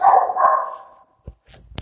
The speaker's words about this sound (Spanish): Ahí están escuchando a mi perrita. les manda muchos saludos.